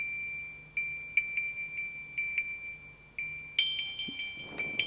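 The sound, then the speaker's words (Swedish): A phone navigation app emits a steady electronic direction tone, pulsing in repeated beeps that shift higher in pitch near the end, with no talking; the tone signals that the phone is pointed the wrong way. “Men man hör det här är ett, ett ljud som gör att det är fel håll.”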